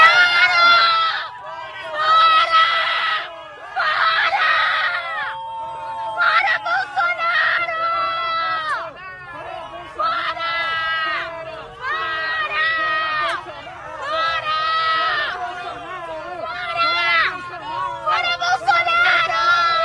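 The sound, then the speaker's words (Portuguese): A crowd shouts and screams in loud, repeated bursts of protest, with one voice yelling close by over the din of many people calling out together. “Mas a maioria, presidente, a grande maioria protestou e protestou bastante, protestou com força, como mostra esse vídeo aqui que a gente separou para vocês.”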